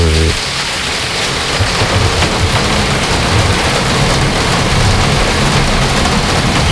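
Heavy rain pours down steadily in a dense, unbroken hiss, with a low rumbling underneath that suggests a thunderstorm. The downpour stays loud and constant, and no one speaks.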